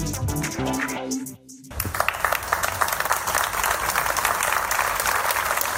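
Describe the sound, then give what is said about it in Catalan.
A crowd of dozens gathered outside the courthouse in Tarragona bursts into applause after a voice trails off, the clapping dense and sustained for several seconds with a broad, open sound, in support of an activist summoned to testify. “Aplaudiments en la concentració de desenes de persones avui a les portes dels jutjats de Tarragona”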